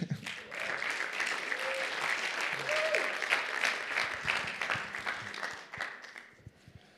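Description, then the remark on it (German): An audience breaks into sustained applause for a guest being called up front, a dense wash of many hands clapping at a steady loudness for several seconds before tapering off at the end. “jemanden, den ihr auch sicherlich gut kennt, ähm, genau, grossen Applaus für dich”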